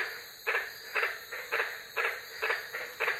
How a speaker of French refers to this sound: Et les messieurs grenouilles ont un étrange appel de séduction rauque qui ressemble un peu à une série d'aboiements.